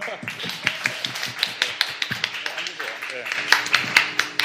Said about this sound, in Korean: 예, 박수.